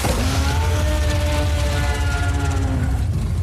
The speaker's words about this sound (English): And then a good roar sound. I think this was good here, so I'll play that.